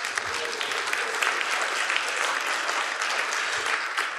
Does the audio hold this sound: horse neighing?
no